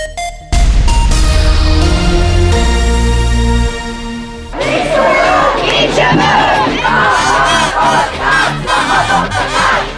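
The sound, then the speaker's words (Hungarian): A loud, steady horn-like tone holds for about four seconds, then a large crowd of student protesters at a demonstration takes up rhythmic shouted chanting of rhymes, loud and insistent, continuing to the end. “A diák tüntetéseken elhangzott rigmusok alapján sejtem, hogy most a következő hírben valami újabb csalafintaságot várnak a kormányzattól oktatási kérdésekben.”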